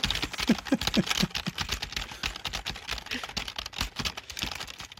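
Steady, rapid typing on a computer keyboard as ASMR, clear, with dense clicky keystrokes filling the whole stretch and no talking.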